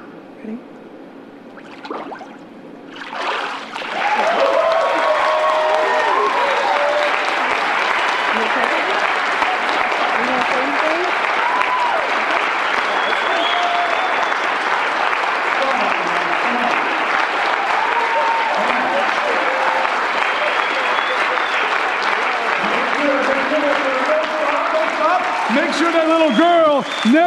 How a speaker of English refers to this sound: never forgets your applause. Make sure that when the devil comes to get her, she can still hear you clapping in the back of her ears.